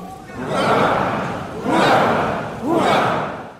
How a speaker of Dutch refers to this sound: Ja, we kennen het allemaal, hè? De, de, koning die toegejuicht wordt door zijn volk.